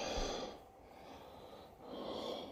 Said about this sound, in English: And then we have this video where he's having trouble breathing.